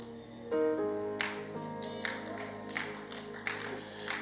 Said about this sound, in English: People, people just, you see how they clap? Ba, ba, ba.